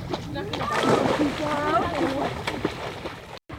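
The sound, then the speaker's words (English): Water splashes and sloshes as swimming children jump off a seawall into the ocean in the coastal village of Kotzebue, Alaska, in early July; children shout and chatter, with a couple of sharper splashes standing out amid the lively outdoor noise. “They launch themselves off a seawall into the ocean.”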